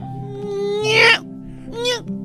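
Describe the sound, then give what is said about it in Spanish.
A voice imitates a cat with two drawn-out meows, the first longer and louder, the second shorter, over a steady low background hum. “¿Como un gato?”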